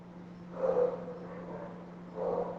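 Two muffled barks from a little dog in the house, roughly a second and a half apart, over a steady low electrical hum, with no one talking.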